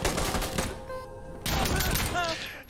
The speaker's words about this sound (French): Shots fired in a cement room, a metal warehouse, or ah, city street will sound different, and each gives a wealth of information about the shooter.